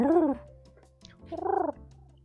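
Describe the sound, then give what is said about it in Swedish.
A person's voice imitates a cat purring in two short bursts, the second a rolling, pulsing trill, with a quiet pause between them. “jag sa, jag sa Tamma spinner lite bara, du vet.”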